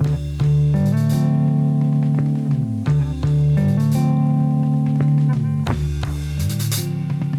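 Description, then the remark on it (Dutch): A rock band plays a loud studio take: a steady, heavy bass line starts, with a drum roll and a subdued guitar lick joining. There are sustained guitar tones, with short drum fills and cymbal crashes breaking in every second or two. No one speaks. “Samen vormen ze dan de basis eigenlijk voor eh, het nieuwe ….”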